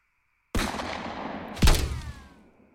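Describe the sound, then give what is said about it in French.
Two loud, booming shots from a large-caliber gun ring out, the second hitting with a deeper thump, each blast trailing off into a rumbling decay with no voices. “Mais c'est quoi ce calibre C'est un canon, quoi”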